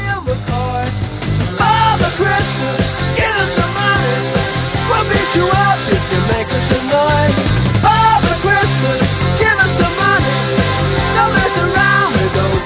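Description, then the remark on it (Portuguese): A loud, driving punk-influenced rock song released in late November 1977, with a prominent guitar riff, fast drums and crunchy guitar, bright jingling bells ringing through the mix for a Christmas touch after a short, thinner intro. No one talks over it. “A música com influência punk, riff de guitarra marcante e bateria acelerada conta com o som de sinos para dar um irônico toque natalino.”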